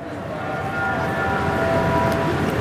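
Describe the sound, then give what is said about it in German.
Busy ambience in the large hall of Munich main railway station (Hauptbahnhof): a continuous, fairly loud wash of crowd murmur and low rumble, with faint drawn-out tones drifting through. “Eine S-Bahnfahrt und ein paar Rolltreppen später stehen wir in der großen Halle des Münchner Hauptbahnhofs.”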